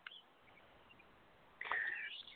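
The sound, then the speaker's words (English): Small birds chirping indoors: a faint chirp at the start, then a brief, brighter flurry of high twittering calls near the end, fairly quiet and with no one talking. “I, I, I can hear the birds where you are.”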